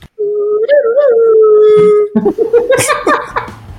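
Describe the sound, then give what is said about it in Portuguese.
A person whistles live, imitating the theme from The Good, the Bad and the Ugly: a long, wavering, howl-like tone for about two seconds, then choppier, brighter notes that break into noisier sounds. “Sabe aquele assobiozinho assim?”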